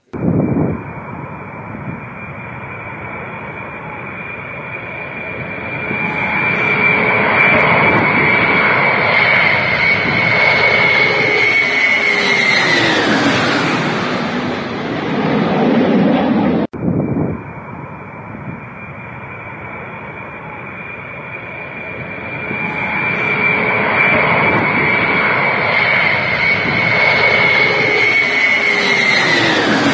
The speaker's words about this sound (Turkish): O iki tane ufak, ufak savaş uçağı, ufak değil normal ondan. normal yani diğer uçağa evet. kıyasla iyi oldu onların orada olması. Güney Afrika Cumhuriyeti'nin savaş jetleri onlar.